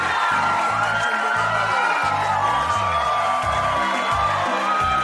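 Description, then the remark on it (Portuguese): A loud, steady burst of crowd cheering and whooping, like a canned applause effect, runs for about five seconds with a choppy low rumble underneath and no talking. “Palmas para Insider!”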